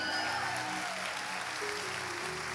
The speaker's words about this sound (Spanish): Yo que a usted le doy un aplauso y un grito. Aleluya.